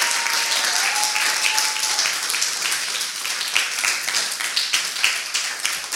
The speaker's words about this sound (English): Let's give God a better hand clap of praise.